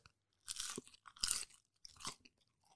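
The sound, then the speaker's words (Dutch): Crisp crunching from biting into a golden-brown, factory-size crispy french fry, with three or four sharp bursts of crackle followed by quieter chewing. No one speaks. “Nou, dit is plenty krokant.”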